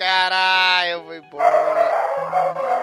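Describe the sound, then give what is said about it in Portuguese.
Dogs bark and yelp loudly in drawn-out, overlapping calls, a high sustained cry followed after a brief pause by a rougher, noisier stretch of barking. “Olha os cachorros”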